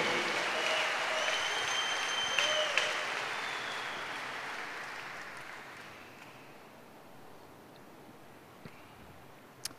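A church audience applauds in praise of Jesus, the Lamb, during a sermon. It is a dense, steady wash of clapping that is loudest at first and gradually fades over several seconds, with a few scattered claps and faint whistles near the end.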